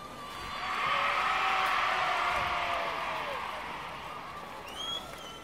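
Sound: crowd cheering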